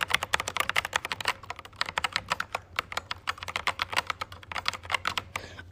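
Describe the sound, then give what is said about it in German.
Rapid typing on a new computer keyboard that reacts very lightly at 1 mm. A dense run of crisp, clicky keystrokes comes with brief pauses between bursts and a low steady hum underneath. “Ich habe eine NEUE TASTATUR!”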